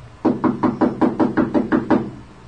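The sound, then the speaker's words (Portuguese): Gentle, rapid knocking on the open door of a house, from its veranda: about nine soft, evenly spaced taps in quick succession, fairly quiet, with no voices. “Bateu a porta delicadamente para não assustá-la.”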